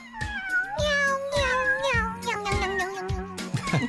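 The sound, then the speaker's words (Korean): A cat meows repeatedly in a rising, sing-song pattern, several drawn-out calls in quick succession, fairly loud with no talking over it. “아이고, 고양이 노랫소리 너무 귀엽다.”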